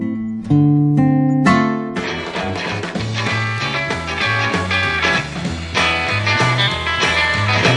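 A recorded rock song cover opens with a few loud, ringing guitar chords punctuated by drum hits, then the full band launches into a driving beat with a bouncing bassline, steady and loud throughout.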